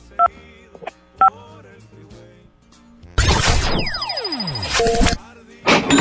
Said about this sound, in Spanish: Compare, en el teclado de tu teléfono tienes que picarle 925. Para que gire la ruleta.